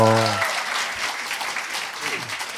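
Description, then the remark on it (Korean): A burst of steady clapping from a group of people, a dense crackling patter that holds at an even level throughout, with a brief voiced sound at the start and a short vocal murmur near the end. “이럴 때 박수 치시는 거예요.”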